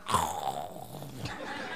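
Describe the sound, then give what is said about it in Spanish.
A man imitates a snore with his voice: one drawn-out, rasping, throaty snort lasting under two seconds, moderately loud, with no speech around it. “En el segundo ronquido le pasaron 10 años ya.”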